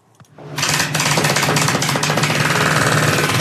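Heavy demolition work as construction workers break down a huge pipe outdoors in wind and weather, at a site where islands are being built: a loud, continuous rattling hammer-like pounding starts abruptly after a brief quiet moment and keeps going steadily, with no voices.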